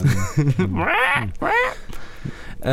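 A few loud, nasal duck-like quacks ring out, with short honking bursts at first, then two longer drawn-out calls before a brief pause.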